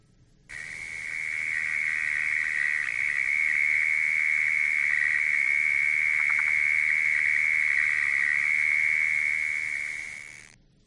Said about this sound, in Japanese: 途中でカエルの音もちょっと入りましたけどそういうカエルがいたような場所であの、はい、あ泣いてる虫があのけらケラなんですけど、オケラのケラです、ね、オケラのケラ。あの、く、えー、っと、ちょっと音がくぐもって聞こえるのは、はい、あの、比較的、あの、地面の中で鳴いてる。トンネル掘って住んでるんで、そこで鳴いてる可能性が高いんですね。